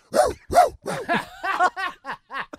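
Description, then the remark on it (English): A person imitates a dog barking with a rapid series of about nine short, voiced woofs, loud at first and tapering into quicker, lighter yips. “Barking like a dog.”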